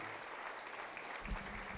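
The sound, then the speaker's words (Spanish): An audience applauds the Lord with dense, steady clapping that holds at an even loudness for the whole stretch, while a low rumbling murmur rises underneath toward the end. “Den un aplauso fuerte, más fuerte aún, al Señor.”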